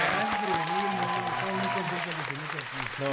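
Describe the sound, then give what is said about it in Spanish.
Steady audience applause fills the whole few seconds, a dense, even patter of clapping with a murmur of voices running underneath. “Un aplauso, por favor.”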